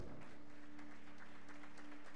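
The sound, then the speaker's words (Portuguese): A church audience applauds the Lord during a service, a dense, steady wash of many hands clapping together at a fairly soft level, with a low constant hum running underneath and no voices standing out. “Então eu quero que aplauda o Senhor pela vida”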